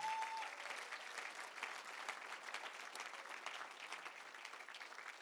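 Steady audience applause fills the whole stretch, a dense patter of many hands clapping at even loudness, with no talking over it.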